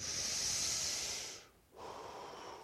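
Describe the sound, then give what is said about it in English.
An audience in a room draws in a long, loud breath together, a broad rushing inhale lasting over a second, then a brief pause before a softer shared exhale. “That wasn't cyanide, that was oxygen. So you can breathe.”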